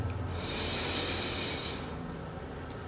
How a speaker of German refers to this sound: Wir nehmen einen zweiten tiefen Atemzug und atmen ein.